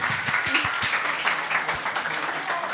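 A crowd bursts into steady applause, many hands clapping in a dense, continuous patter that holds at an even level throughout, with a few faint voices mixed in underneath.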